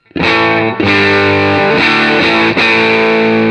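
Electric guitar through a Dream distortion pedal alone, amp gain set to 12, mildly crunchy, strumming four loud sustained chords in a slow rhythm, each ringing into the next, with no voices.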